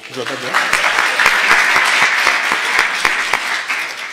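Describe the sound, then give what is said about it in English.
An audience breaks into loud, steady applause for the artist of a new sermon series artwork, many hands clapping in a dense, even patter that holds for about four seconds. A voice briefly trails off at the very start. “You can applaud for her.”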